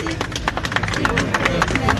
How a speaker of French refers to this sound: Cédric Villani, député de la majorité qui a aussi porté le dossier, essuie quelques huées, mais finalement. Applaudissez-le.